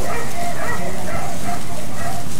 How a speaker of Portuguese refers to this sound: E os cachorros lá também latiam, os cachorros latiam, os cachorros brincavam, sabe? Muito cachorro.